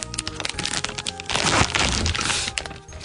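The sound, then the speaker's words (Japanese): Loud crackling and crinkling of the plastic wrapper of a durian snack, about a third the size of a fish sausage with durian photos on the package, being torn open in a Bunka Hoso studio; a dense burst of sharp rustles swelling in the middle before tapering off, with no one talking. “サイズ感は本当にねそのいわゆる魚肉ソーセージ3分の1ぐらいのサイズで、えー、パッケージにドリアンの写真が並んでいてですね、えー、色は本当にこう濃いえー、茶色という感じでね、開けてみます。”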